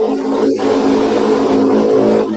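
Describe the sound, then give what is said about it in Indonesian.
A motorcycle engine drones loudly and steadily, its low humming tone holding throughout with a brief rise in pitch, as if passing or revving slightly. “wow wow suara motor suara motor wow oh suara motor oke okay.”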